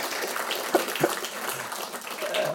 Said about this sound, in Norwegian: Det, fortjener, hæ? Hæ? det fortjener en liten applaus, da.